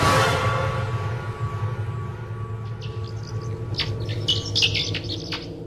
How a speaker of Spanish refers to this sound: Cuando el sol está por esconderse en el interior de la cueva, empieza a percibirse un ligero movimiento. Ligeros silbidos rebotan en las rocas. De la boca de la cueva empieza a salir la nube de murciélagos